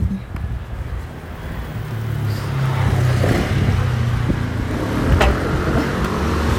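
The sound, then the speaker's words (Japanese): A car drives past on a road at about 6:50 in the morning, its low engine rumble swelling and fading beneath steady wind noise, with no one talking. “車がね撮っていて今風が吹いてるからあれかな”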